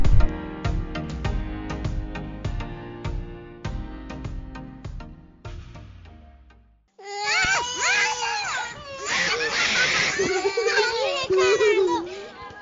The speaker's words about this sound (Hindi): हे भगवान गर्मी की छुट्टियां और बच्चों का शोर मैंने सोचा इनको समर कैंप में डाल दूं पर फुटबॉल डांसिंग सिंगिंग ये सब तो बच्चे घर में ही सारा दिन करते रहते हैं